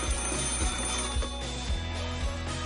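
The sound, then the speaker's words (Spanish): A telephone rings in steady, rapid repeated pulses, moderately loud, as a young man places a call from the venue's telephone, with a faint background hum and no one speaking. “El joven se apresura hacia el teléfono del local para hacer una llamada.”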